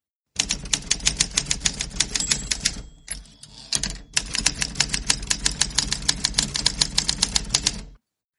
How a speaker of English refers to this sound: typewriter again